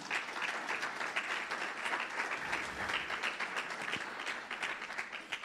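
An audience applauds steadily for several seconds in honor of the Father, the Son and the Holy Spirit, a dense wash of many hands clapping at an even, sustained loudness with no voices standing out.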